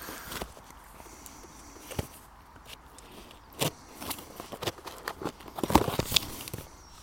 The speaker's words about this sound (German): Ja, jetzt ist die Schere runtergefallen und ich komme hier wahrscheinlich die ganze Zeit schon an das Mikro ran.